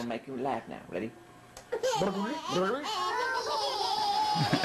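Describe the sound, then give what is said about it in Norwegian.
Four tiny identical babies (quadruplets) giggle and babble in high, bouncy bursts, their squeals overlapping and rising toward the end, fairly loud, played back from a video of a woman lying on a bed with them. “Det er ingenting som gjør deg så glad som å se fire bitte små helt like babyer le.”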